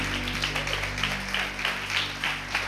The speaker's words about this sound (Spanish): Dale un fuerte aplauso a nuestro Señor en esta mañana. Alabado sea el nombre de nuestro Señor y Salvador Jesucristo.